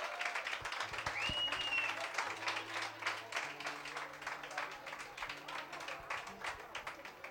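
Sustained applause from an audience for a band, the first applause of the night, a dense wash of many hands clapping at steady loudness for several seconds, with a brief whistle cutting through early on.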